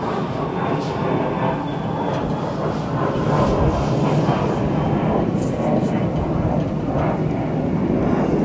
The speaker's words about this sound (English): I'm waiting for this for this train to pass by because I fucking can't.